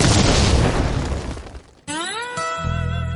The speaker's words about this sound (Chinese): 瞬间爆炸。